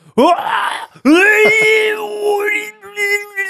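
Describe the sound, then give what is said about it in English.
A voice imitates the straining toilet groan from the film Dumb and Dumber, two loud, drawn-out, effortful vocal pushes with a rising, wavering pitch, with no actual words spoken. “I know his toilet voice more than anything.”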